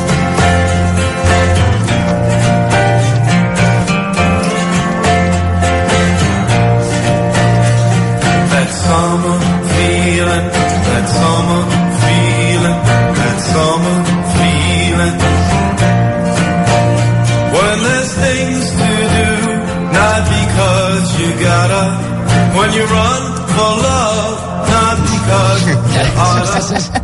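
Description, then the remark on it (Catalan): A full-band pop song about summer nostalgia plays continuously at a steady, fairly loud level, with warm sustained bass, strumming chords and a sung vocal line running throughout. “I aquesta cançó sobre la nostàlgia a l'estiu”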